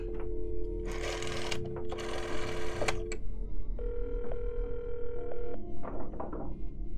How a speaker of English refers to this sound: What are you talking about, lady? It just dialed zero.